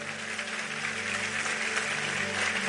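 Steady audience applause fills the whole moment, a dense wash of many hands clapping at once, loud and continuous without pause, with no one speaking over it.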